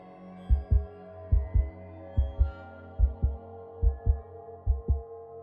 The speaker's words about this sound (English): I struggled to hear it over the wild, fearful pounding of my heart.